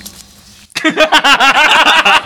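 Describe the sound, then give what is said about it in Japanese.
After a quiet, murky opening, the short spoken Japanese phrase "ii desu ka" bursts in with a heavy echo effect, its syllables repeating and piling over one another at a steady, loud level. “いいですかエコはいいですかって何ですかいいですかエコ入ってた合図されて合図されていいですかって言ってエコ入ってた”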